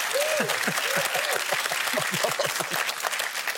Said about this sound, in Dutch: Ja, serieus. Ja, mijn, groot applaus voor onze assistent, de slang. En de slangenkoning, dames en heren.